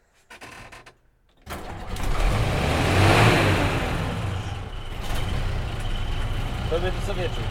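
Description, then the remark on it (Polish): After a brief sound, a car engine catches and roars to life as the clutch and throttle are worked, revving up to a loud peak before settling into a steady, throaty idle-rumble. “Sprzęgło, gaz.”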